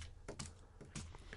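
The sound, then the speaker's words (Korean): A few sharp key clicks as keyboard shortcut keys are pressed on a computer keyboard, about three quick presses spaced unevenly, fairly crisp against a quiet low hum, with no one talking. “단축키를 외워서 그냥 하면서 이렇게 누르세요 이렇게.”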